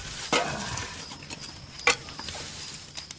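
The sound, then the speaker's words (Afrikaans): Logs are tossed onto a crackling fire, with two sharp thuds about a second and a half apart over a steady, soft popping and hiss. No one speaks. “Ek uh, ek gooi nog gou 'n paar stompe op die vuur.”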